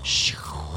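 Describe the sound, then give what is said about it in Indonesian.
A person imitates wind blowing through a tree with a short, breathy hiss that slides down into a low, voiced whoosh. The sound is brief, under a second long. “Pohonnya ketiup angin.”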